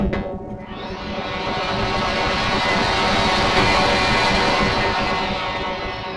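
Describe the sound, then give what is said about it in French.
A vacuum cleaner switches on and quickly rises to a loud, steady motor roar with a constant whine, running for several seconds without any talking. “Un aspirateur pour les aspirer.”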